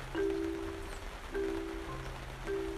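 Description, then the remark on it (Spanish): Steady rain falls with a soft, even hiss, while a low humming tone swells and fades at a regular pace underneath. No one speaks. “Este podcast cortito es para que escuches el sonido de la lluvia.”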